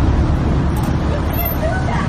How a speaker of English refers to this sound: a car is backing in trying to take the spot. Let's see who wins this fight.